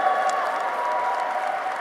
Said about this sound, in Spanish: Ey, dale un aplauso fuerte allá! Ponte en pie por lo menos, brother. Dale un fuerte aplauso a tu brother.